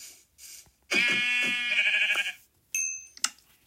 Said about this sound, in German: Da ist noch ein Schaf.